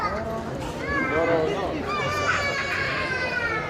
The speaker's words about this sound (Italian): Chi ricorda le prime puntate di Romolot resterà assordato da questo. Sentite. Aspetta a te che vi porto da un'altra parte. Sento un pianto. Mi farà da sigla di Romolot.